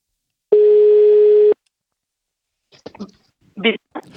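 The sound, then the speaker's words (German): A single steady telephone ringback tone of an outgoing call lasting about a second, clear, followed by a short pause and then brief bursts of voice. “Und jetzt geht es weiter, denn jetzt spreche ich, jetzt rufe ich an”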